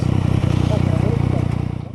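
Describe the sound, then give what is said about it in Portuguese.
A motorcycle carrying a rider and a woman passenger approaches a traffic light in the ABC Paulista region of São Paulo state, Brazil. Its engine rumbles steadily with a low throbbing pulse, loud and unbroken for a couple of seconds, with faint indistinct voice-like sounds in the background. “O motociclista que está com a mulher na garupa se aproxima do semáforo.”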